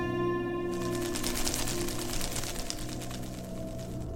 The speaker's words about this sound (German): An der Decke des rechten Ganges hinweg flattert eine Fledermaus.